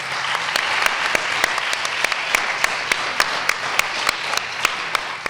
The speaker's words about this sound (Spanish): Así que pues otro fuertísimo aplauso para ella.